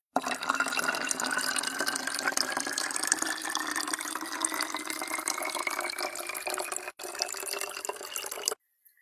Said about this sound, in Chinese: 往瓶里灌开水